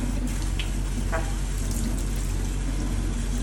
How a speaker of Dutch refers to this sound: Dus spoel ik even om met uh, heet waterkraan, kokend waterkraan. Laat ik dat even doen. Ik hoop niet dat het al spettert. Ik probeer niet te spetteren.